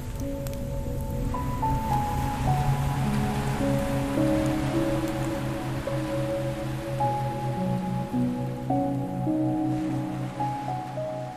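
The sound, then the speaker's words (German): Rain, its first drops falling, patters softly throughout, a continuous light hiss beneath calm, sustained musical tones that shift slowly, with no talking. “noch bevor ihr sie erreicht habt, fallen die ersten Tropfen.”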